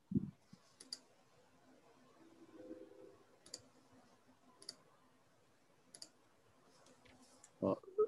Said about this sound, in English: is clicking on some pornography sites. I can hear that.